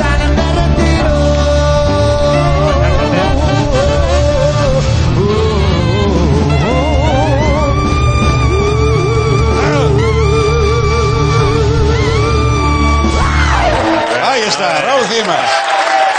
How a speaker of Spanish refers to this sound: No quiero este aplauso.